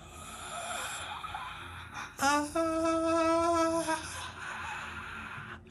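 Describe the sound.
A voice imitates a long, wailing moan: one sustained, slightly wavering vocal tone lasting about two seconds, loud, rising out of a steady background hiss before fading away.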